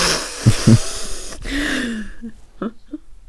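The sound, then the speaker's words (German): A person sharply and loudly snorts air in through the nose several times, mimicking someone snorting cocaine powder, with a few short breathy sniffs trailing off at the end. “Muss ich jetzt mal aufschnupfen.”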